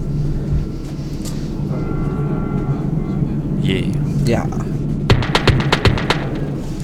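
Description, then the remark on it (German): Steady low rumble inside a moving regional train, with a faint tonal hum and a quick run of sharp rhythmic clacks near the end. Voices murmur briefly over the noise. “Wie sitzen in diesem Zug.”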